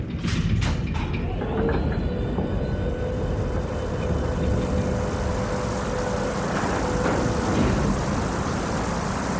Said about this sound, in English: Opening rear door.